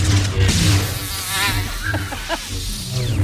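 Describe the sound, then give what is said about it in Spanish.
A continuous mosquito buzz whines steadily throughout, its pitch wavering slightly, with a low hum underneath and a few faint clicks. “Ahí está Darvey te mandando mosquito.”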